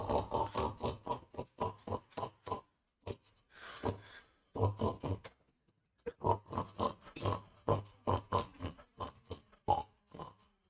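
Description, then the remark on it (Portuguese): A pig grunts and oinks in rapid, rhythmic bursts, loud, with a short pause partway through before the snorting grunts pick up again. “É javali é porco, caralho.”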